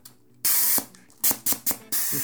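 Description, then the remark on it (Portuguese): A person imitates graffiti spray-painting with their mouth: one long hiss followed by four short, sharp bursts of spray, loud, with faint low hum underneath. “Como é que faz pichando? Alguém pichando?”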